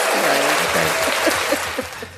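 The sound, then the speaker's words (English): A crowd applauds, a dense steady wash of clapping that stays fairly loud throughout, with a few louder individual claps and faint voices mixed in underneath. “Let's get a good applause for that.”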